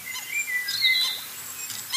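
Birds chirp and tweet in thin, high calls scattered over a soft outdoor hush in Bernrieder Park on Lake Starnberg, with several quick twitters overlapping near the middle; no one speaks.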